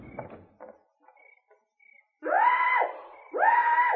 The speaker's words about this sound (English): Yes, I hear it. Oh, that. That's the peacock. You mean he's come back? Yes, he's answering the mating call, just as I said he would.